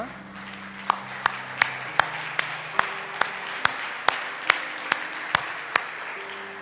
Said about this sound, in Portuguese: por que não damos um aplauso outra vez a Jesus Cristo?